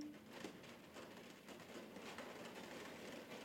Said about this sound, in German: Hörst du dieses fucking Regnen?